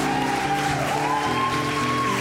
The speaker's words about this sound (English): Let's just give God a round of applause because He is